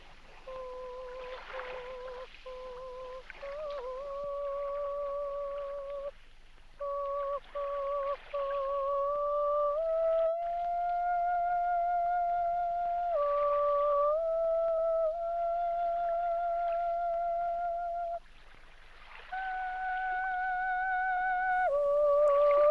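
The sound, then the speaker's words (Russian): A lone female voice, a well-known opera singer, sings a wordless operatic vocalise in a film, with held notes stepping from pitch to pitch in long sustained phrases. A soft, steady wash of water-like noise runs underneath. “Звуковой образ острова — некая таинственная песня, сольный вокализ, исполненный дочерью композитора”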